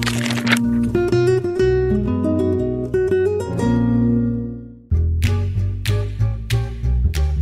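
A street performer in New York City plays accordion: loud, sustained reedy chords and a steady bass line change every beat or so, pausing briefly before a livelier run of notes resumes. No one speaks.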